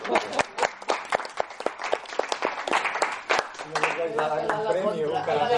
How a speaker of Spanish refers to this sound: O sea, que os merecéis un aplauso.